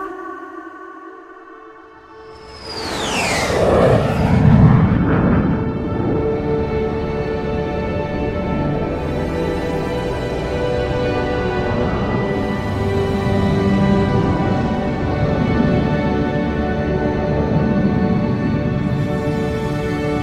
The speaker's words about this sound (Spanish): encendiendo motores.